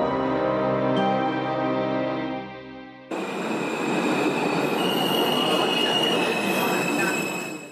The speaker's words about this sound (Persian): قطار تکانی خورد و از حرکت ایستاد